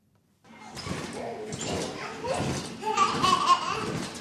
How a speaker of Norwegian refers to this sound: På lekerommet i Handelshuset i Førde. Ungene står i kø for å komme seg opp på trampolina.